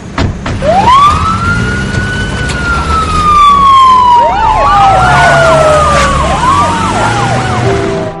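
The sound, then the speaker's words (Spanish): Police sirens wail loudly and continuously as police patrol cars depart, one long rising-and-falling tone joined midway by a second faster warbling siren, with a low engine rumble underneath and no talking. “La familia y los policías montan en el jeep y en los coches patrulla.”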